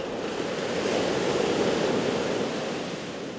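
Atlantic ocean waves break on the shore of the Basque coast at Biarritz, France, in a steady, broad wash of surf that swells slightly and then eases off, with no voices.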